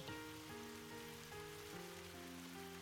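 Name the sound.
rain falling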